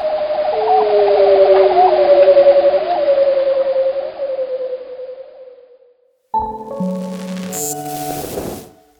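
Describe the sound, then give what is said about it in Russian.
Bearded seal male mating calls: a long, warbling trill gliding slowly downward for about six seconds, then after a brief silence a burst of stepped, tonal calls, loud. “Нельзя глушить брачные крики морских животных.”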